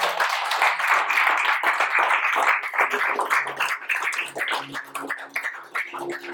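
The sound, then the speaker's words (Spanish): An audience applauds God loudly and steadily, dense overlapping claps forming a sustained wash that thins slightly toward the end as individual claps become more distinct. “Den un fuerte aplauso a Dios, déselo fuerte.”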